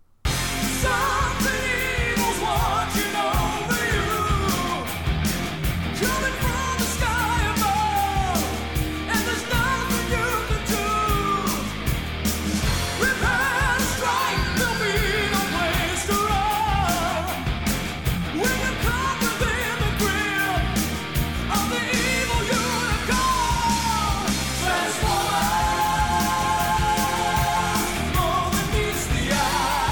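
A metal band plays a loud, dense track of distorted guitars and pounding drums, with a soaring sung vocal line riding steadily on top for the whole stretch.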